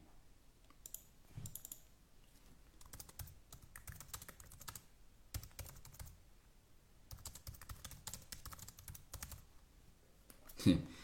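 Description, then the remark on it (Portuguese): Rapid keyboard typing in irregular bursts of clicks and taps, fairly quiet, with short pauses between flurries and no one speaking, as someone types a note. “Acabei de uma, lembrar de uma história incrível que deixa, vou anotar aqui.”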